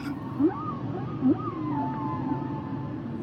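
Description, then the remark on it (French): Humpback whale song: two short rising moans followed by long, wavering higher whistles and sweeps, set against a steady low underwater rumble, with no voices. “Et je vous avais dit que ces chants se propagent de population à population, à travers l'espace et le temps, par vagues de transmission culturelle.”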